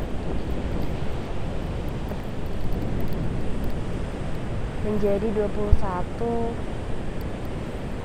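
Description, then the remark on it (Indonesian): Steady beach ambience of rolling surf and gusting wind filling the whole scene at a beach near the speaker's home, on 30 June 2020 at 3 pm, with a person briefly speaking over the constant roar partway through. “gue sekarang sedang ada di pantai dekat rumah gue”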